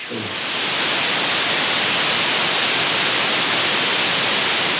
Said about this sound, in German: gerade das MacBook von Marty, ja. was anfängt richtig laut, laut zu schniefen